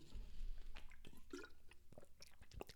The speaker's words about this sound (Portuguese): Eu vou beber água com a minha garrafa da Apple.